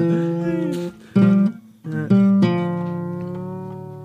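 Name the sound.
musical instrument being tuned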